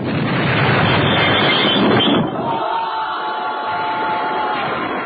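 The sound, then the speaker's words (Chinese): An explosive satchel charge goes off, blowing open a sluice gate, in a loud, roaring burst that lasts about two seconds. It then drops abruptly into a quieter, crackling rumble that lingers. “等他听见这炸药包的爆破声，再想挽回败局， 为时已晚，水闸被炸开，水位迅即下降”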